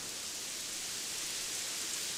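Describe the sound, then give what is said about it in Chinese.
Steady rain falls on an outdoor sand sculpture contest, hissing without pause, a dense, even wash of bright patter with no distinct drops, no rhythm and no voices, fairly soft throughout. “下雨了！”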